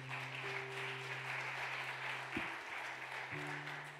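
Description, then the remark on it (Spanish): A crowd claps loudly and steadily for the Lord, a dense wash of applause, with a low sustained hum or organ-like tone underneath that shifts pitch partway through. “¿Cuánto le da un aplauso fuerte al Señor?”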